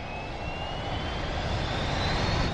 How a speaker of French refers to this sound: Tout a commencé là, comme mon avion a décollé.